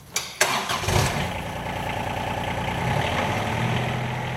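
A dairy farmer's quad bike engine cranks with a couple of sharp starter bursts, then catches and settles into a steady, throaty idle with a faint rhythmic pulse, alone without voices.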